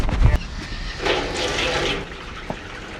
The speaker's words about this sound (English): there's a hose you'll see comes right outside that that house or you know by the door there. They fill up the dogs Water's going in those things.